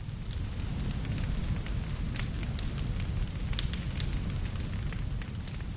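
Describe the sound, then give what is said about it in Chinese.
A wood fire burns steadily with a low, rumbling roar, scattered sharp pops and crackles breaking through at irregular moments. No voices are heard. “诶，那你们喜欢那个火烧木头的声音吗？”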